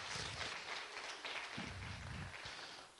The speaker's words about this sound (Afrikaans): Julle kan vir hulle hande klap gee. Regtig.